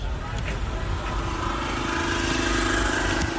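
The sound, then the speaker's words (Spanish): Engines rumble steadily, a low, throaty drone of heavy vehicles with a rising mid-pitched whine, continuous throughout, from tractors and off-road vehicles advancing in a caravan through a natural area on the way to Marismillas, on the pilgrimage route to El Rocío. “El rugir de los motores, de tractores y todoterrenos que avanzan en caravana contrasta con la armonía del espacio natural en el que ya nos encontramos, camino de Marismillas.”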